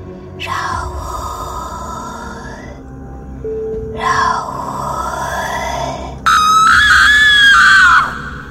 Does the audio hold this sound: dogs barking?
no